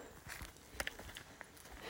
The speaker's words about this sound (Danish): Især når der står tre hængste og stiger ned på os.